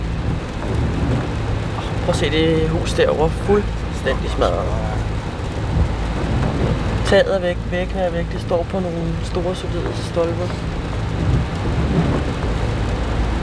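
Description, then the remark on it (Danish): Steady rain hisses against a moving grey Mitsubishi car driving into Vukovar in eastern Croatia, with a constant low road rumble underneath, while a man talks over it throughout. “Vi er tilbage i den grå Mitsubishi i regnvejr i det østlige Kroatien.”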